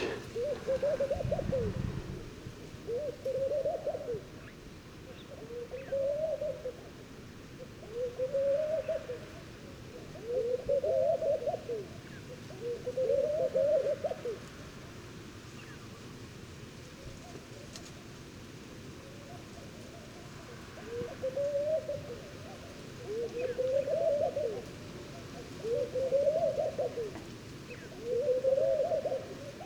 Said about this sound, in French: Je suis dans un oasis dans la région du Tagante, en Mauritanie. Rencontre avec la tourterelle maillée.